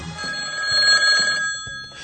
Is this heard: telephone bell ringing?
yes